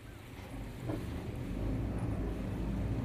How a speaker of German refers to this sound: Der Bus von Mr. John setzt sich quietschend in Bewegung. Vor allem der zweite Gang lässt sich nicht ohne unschöne Nebengeräusche einlegen.